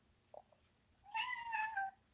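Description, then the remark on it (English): A big neutered male cat lets out a single drawn-out, high-pitched meow, fairly loud, after a couple of soft small sounds. No one speaks. “He has that high pitched, neutered boy meow.”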